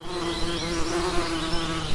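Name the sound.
wild bees buzzing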